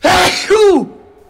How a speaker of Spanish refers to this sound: uno de esos siniestros dinteles de bronce con forma de rostro humano, cuya función era disuadir a los posibles visitantes de que llamaran a la puerta, porque cuando el forastero estaba a punto de tocar, el dintel soltaba un sonoro estornudo.